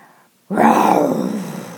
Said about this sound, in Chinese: 又是一阵可怕的吼叫声传来，虎头熊来了，我们该怎么办？